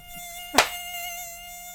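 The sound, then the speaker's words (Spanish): A mosquito whines steadily, a thin high-pitched drone that continues throughout, briefly interrupted partway through by a single sharp smack. “Porque por lo pronto los zancudos de por acá de por acá suenan como este.”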